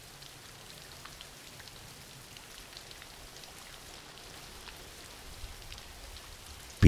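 Steady rain falls continuously as background for a sleep relaxation session, a soft even hiss dotted with faint droplet ticks, with no voices present, ending in a brief louder burst.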